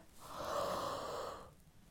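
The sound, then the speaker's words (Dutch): A loud, exaggerated yawn, one long breathy exhalation that swells and then fades over about a second and a half, alone with no talking; a person yawning hard to relax the voice. “Dus niet is de allermakkelijkste manier om je stem te ontspannen heel hard gapen.”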